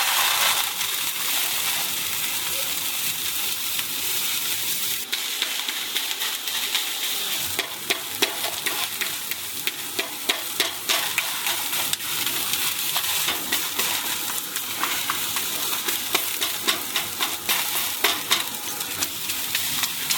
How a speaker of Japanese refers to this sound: 今朝は上野駅から徒歩5分ステーキハウスゲイン暖炉で焼くステーキのいい音。